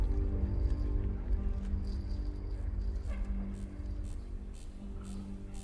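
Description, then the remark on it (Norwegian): A steady low electrical hum with a buzzy, tonal drone, joined by a few faint crackling pulses and soft clicks toward the end, no voices: a man running electric current through his chest with a device kept in a 25 x 25 x 25 cm box. “Det du hører nå, er lyden av en mann som kjører strøm gjennom brystkassa.”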